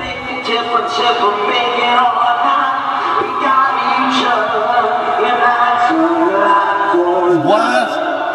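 Live rock concert recording, a loud and dense band mix with a drummer and keyboard playing steadily for the whole stretch, with crowd noise blended into the wash of sound.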